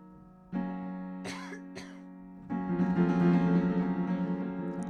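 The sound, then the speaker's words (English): Two sharp coughs break out in quick succession over a steady humming drone, which then swells louder and more textured as the coughing stops. “and we're at the deliberation right as I start coughing up a storm.”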